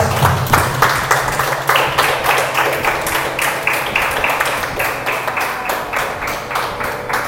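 An audience applauding God during a church sermon, loudly and steadily for several seconds, the many hands falling into a rough rhythmic beat, with a low steady hum underneath and no one speaking.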